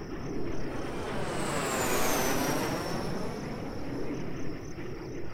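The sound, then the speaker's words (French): An airplane drones past overhead, a steady broad roar with a slowly falling whine as it moves across the sky, continuous throughout, with no voices. “Moi-même, j'ai entendu des avions lors de mon expédition au Groenland.”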